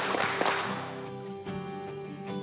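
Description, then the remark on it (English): Sharp, crisp hand claps, counted as three claps, ring out in a steady rhythm, struck together in unison over a constant background hum, with no voices heard. “Three claps.”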